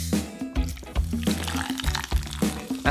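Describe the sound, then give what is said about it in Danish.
Red soda glugging steadily into a large pot on the stove to make red soda soup, a continuous splashing pour with rhythmic gurgles as the liquid streams out, fairly loud and without any voices. “Og så begynder I bare at hælde op.”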